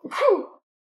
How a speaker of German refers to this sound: Entschuldigung. Gesundheit. Danke.